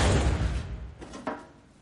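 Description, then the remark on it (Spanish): Two men shut the heavy door of a cold storage chamber at a research centre: a loud, booming thud that fades away, followed by two sharper clicks of a latch catching, without any voices. “Cierran la cámara.”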